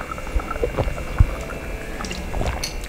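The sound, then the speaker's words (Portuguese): Someone drinks water: soft sloshing and swallowing with a few low thumps and a sharp knock midway, quiet and unhurried, with no one talking. “Vou beber água.”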